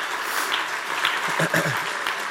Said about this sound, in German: Apropos, dürfen wir der Band mal einen fetten Applaus geben, oder? Ich fand es wieder eine super starke Lobpreiszeit.